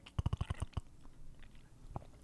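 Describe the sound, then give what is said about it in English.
A water bottle gives a quick burst of about seven bubbly, gurgling pops in rapid succession, then falls quiet with only faint background noise afterward. “makes a weird bubbly noise.”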